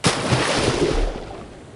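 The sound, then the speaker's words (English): A loud, broad roar of rushing river rapids around a boat surges up at once and churns steadily, then gradually eases off. No voices are heard. “Go, the rapids! We're on the wrong side!”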